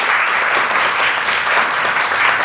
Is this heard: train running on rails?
no